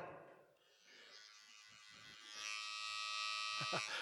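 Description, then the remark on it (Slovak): Electric hair clippers buzz steadily, a dense motorized hum that grows louder and harsher partway through. A brief vocal sound emerges faintly near the end. “Nenechaj sa ostrihať nepriateľom. Nedovol, keď počuješ ten zvuk, tak aby si vedel, že nepriateľ ti chce vziať nazarejstvo, nepriateľ ti, ti chce vziať tú Božiu blízkosť”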